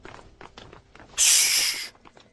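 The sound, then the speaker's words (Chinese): Several uneven, hurried footsteps of a group of people coming back shuffle outside in an irregular rhythm, broken midway by a loud burst of hissing noise lasting under a second, then a few more steps follow. “师徒二人正在聊的时候，突然外面传来了一阵凌乱的脚步声。”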